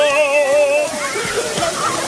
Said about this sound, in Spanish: ¡No tengan miedo al agua! Miren cómo Sobis no camina tranquilo en medio de la lluvia.